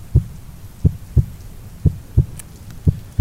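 A muffled heartbeat thumps steadily in deep lub-dub pairs, soft and low as if heard through padding, repeating about once a second with no voices.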